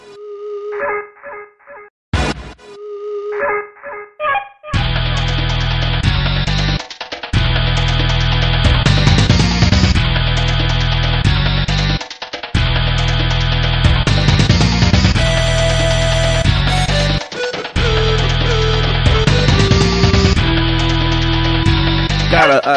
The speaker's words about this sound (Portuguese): sensacional, velho. Muito boa. Merece uma salva de palmas a trilha sonora do grande Killer Instinct.